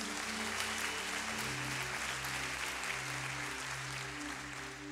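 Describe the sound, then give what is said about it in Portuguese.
A church audience applauds for Jesus steadily and fairly loudly for several seconds, a dense wash of clapping over sustained keyboard chords, easing slightly toward the end. “Você pode dar uma salva de palmas para Jesus.”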